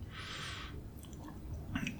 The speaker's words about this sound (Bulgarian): Кусане. Сега ще, съм, ще говоря мляскащо.